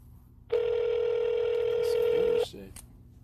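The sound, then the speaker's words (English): A steady electronic telephone line tone hums for about two seconds during a call transfer, loud and unbroken, then cuts off abruptly, leaving a faint voice and low line noise behind. “If you know your party's three-digit extension, please dial 2 Wait while I transfer your call.”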